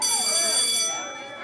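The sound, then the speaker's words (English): A school end-of-day bell rings with a steady, bright, high-pitched tone for about a second before cutting away, while voices chatter in the background. “But before I got to it, the end of day bell rang.”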